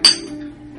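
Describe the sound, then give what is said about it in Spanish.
Glasses clink together once in a toast, a bright ringing strike that fades over a short tail with faint background noise beneath. “Aturdimos y el audio se fue en pique.”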